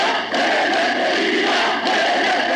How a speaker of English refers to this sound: That was a recording of Seferis' funeral. The crowd is shouting Athanatos, or immortal, in reference to the poet's standing